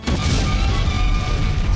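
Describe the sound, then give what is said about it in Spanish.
A deep, rumbling explosion fills the whole moment, loud and sustained, with heavy low-end roar and crackling debris texture throughout, no voices present. “Sonido de explosión.”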